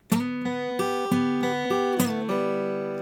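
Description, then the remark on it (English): A short melodic lick of about eight plucked notes played over a G chord in a steady, even rhythm, each ringing into the next, clear with no talking. “So I'm going to play a G chord one measure, the part that works over the G chord is this part.”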